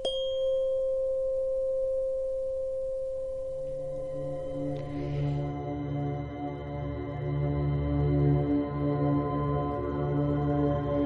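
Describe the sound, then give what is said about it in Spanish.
A tuning fork tone rings out clear and steady, a pure sustained pitch that is soon layered with lower droning tones and shimmering overtones, with no one speaking. “El 528 veremos que es, es un sonido mucho más agudo que nos ayuda a activarnos.”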